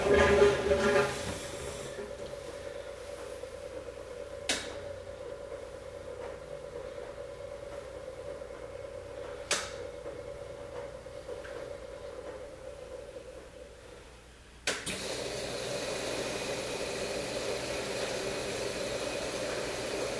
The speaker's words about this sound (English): And it's gonna re-engage and you just heard the drain pump come on. So I'm gonna watch this for leaks when it starts to fill.